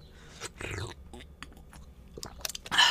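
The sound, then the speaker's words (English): A person sips from a drink, with a short slurp followed by a few soft, wet mouth clicks and a swallow, fairly quiet with no talking. “Everybody gets to listen to my my sipping.”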